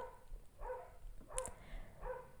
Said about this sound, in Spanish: De la naturaleza que cría perros que ladran en mi cuadra. Ya, ahí se callaron.